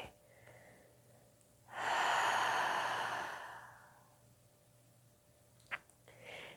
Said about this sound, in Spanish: Y nuevamente inhala profundo. Llenas pulmones hasta el fondo y contienes la respiración. Y por tu boca lento suelta todo, todo el aire.